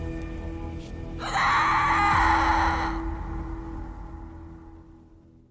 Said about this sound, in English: The story she has for us tonight happened on Halloween night in 2004, when one house in Napa Valley was transformed into a real life horror movie that began with a terrifying, blood curdling scream.